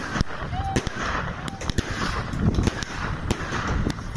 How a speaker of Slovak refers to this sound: No myslím, že to je uh, silvestrovský ohnostroj. Alebo nejaké petardy.